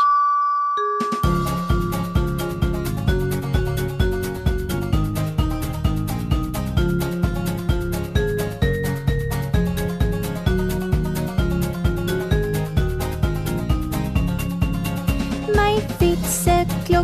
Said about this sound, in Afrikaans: die kerk se klok sê dong dong die voordeur klokkie sê tr tr en die etens klokkie sê tingelingeling